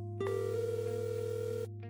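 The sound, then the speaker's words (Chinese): A single steady electronic phone ringing tone, one unbroken buzzy hum lasting about a second and a half with no one speaking, then cutting off abruptly, as Mu Yingqiu, back inside a car, phones Cao Ruiyan. “与陶南方分别，穆应秋返回车内，给曹瑞妍拨通电话。”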